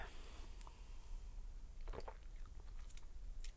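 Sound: sipping beer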